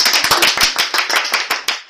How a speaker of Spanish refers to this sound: Por favor, un aplauso para el requinto